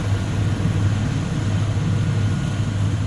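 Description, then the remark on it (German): A helicopter's low, steady whirring drone hums continuously with a broad rushing noise, holding an even loudness throughout without speech, as a man flees in the helicopter. “Mann, das ist ein Helikopter, der Typ verpisst sich.”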